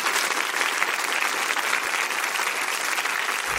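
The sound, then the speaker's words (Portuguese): An audience claps steadily throughout, welcoming Lilia Schwarcz and Marisa Lajolo, authors of the biography Reinações de Monteiro Lobato, a dense, even wash of many hands with no voices, holding a constant loudness for a few seconds. “Aplaudam Lilia Schwartz e Marisa Lajolo.”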